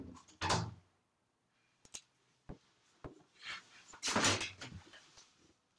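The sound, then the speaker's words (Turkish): Someone fumbles at a door, with a rattling thud, a few sharp clicks of the handle or latch, then a longer burst of rattling and knocking as the door fails to give way. “Şimdi kapıyı evet. açıldı mı? Yok.”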